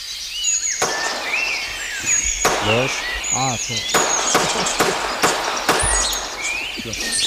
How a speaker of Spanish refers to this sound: estos son disparos que Carlos captó en las tablas de Daimiel